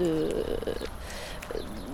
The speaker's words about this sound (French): Euh, bah, il y a beaucoup d'herbes, des arbres. Euh, ça, fait, euh, ça fait prairie un petit peu, j'ai l'impression. Ça fait jardin, c'est calme, on entend les oiseaux.